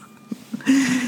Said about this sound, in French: Ok, je suis désolée pour le bruit. Euh, c'est la déneigeuse, encore.